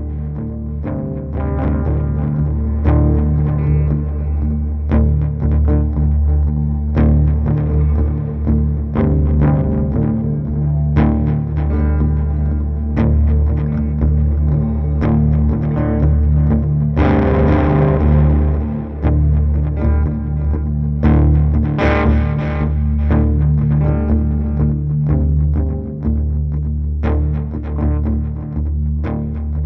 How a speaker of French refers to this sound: C'est un travail de guitare instrumentale quelque peu improvisé et enregistré dans un van en mouvement pendant six semaines.